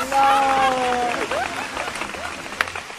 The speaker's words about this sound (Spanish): Aplausos.